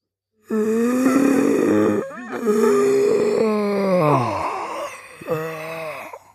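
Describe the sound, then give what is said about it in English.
A person imitates a zombie, letting out long, drawn-out guttural groans and moans in three sustained bursts, loud, with no words spoken. “I want to hear your zombie impression.”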